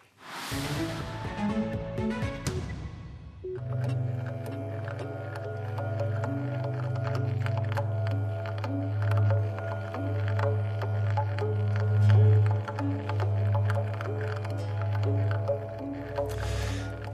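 Freely improvised jazz trio music with sustained, droning low tones and layered shimmering overtones, holding at a steady moderate volume throughout with no one speaking.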